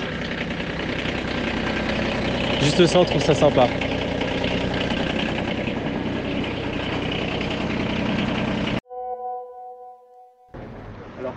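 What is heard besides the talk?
tractor engine idling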